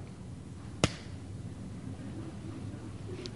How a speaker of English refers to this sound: just slapped his head really hard. He's, and he's just exasperated with these guys.